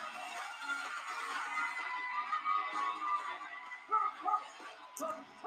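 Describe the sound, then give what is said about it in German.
A WWE NXT wrestling audience claps steadily in a dense, continuous wash of crowd noise as Sarray, Mandy Rose's opponent in the opening match, is introduced, with scattered shouts rising through it and a couple of louder bursts near the end. “Zuschauer sind am Klatschen.”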